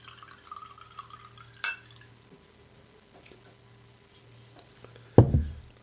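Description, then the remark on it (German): Wine trickles quietly into a glass for a few seconds, with a light clink partway through and a louder knock near the end as the bottle or glass is set down. “Äh wenn, du, wenn du zügig gießt und zügig absetzt, tropft sie nicht.”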